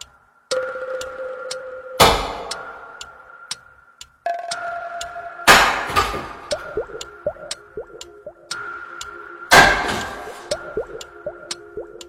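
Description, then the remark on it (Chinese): Three burly men swing hammers and axes against a locked security door from inside a home, a few loud, thunderous, heavy blows spaced seconds apart, each crash ringing out, with faint dripping and ticking sounds and a steady tone filling the gaps. “却看到防盗门关得死死的，里边传来雷鸣般的砸门声。”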